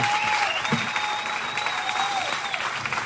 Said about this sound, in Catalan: Fora aplaudiment, clar que sí!